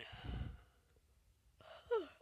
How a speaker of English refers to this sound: I am sorry for yawning so much in this podcast.